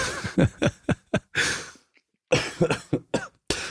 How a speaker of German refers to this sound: oh, ich kann nicht mehr so arg lachen, mein Hals kratzt so arg, da muss ich mal husten.